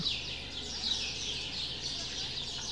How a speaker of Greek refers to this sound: Μπήκα στο δωμάτιό μου κάτω από τους ήχους του συντριβανιού του εθρίου και δεν ξύπνησα παρά το πρωί υπό τα τιτιβίσματα εξωτικών πτηνών.